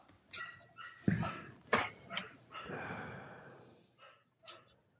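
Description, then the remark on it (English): A dog barks in a short, irregular run of yips and sharp woofs, with one drawn-out whiny bark in the middle, moderately loud, with no talking. “Heidi has an opinion.”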